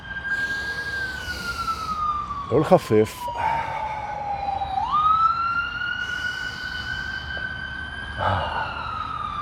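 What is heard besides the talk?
emergency vehicle siren passing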